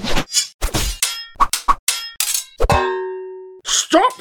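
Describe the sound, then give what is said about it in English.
A rapid flurry of sharp metallic sword clashes, several quick strikes in a row, ending with one loud ringing clang that hangs and fades before a couple more hits. “Threw himself at Musashi, limbs and blade flying in all directions like an electric spaghetti maker gone wrong.”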